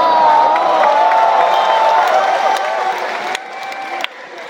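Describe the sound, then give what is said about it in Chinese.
A loud crowd erupts in hooting and jeering, a dense wash of shouts and whoops with scattered claps, holding steady before easing off slightly near the end. “嗯，你们听到也有人在起哄，对吧？”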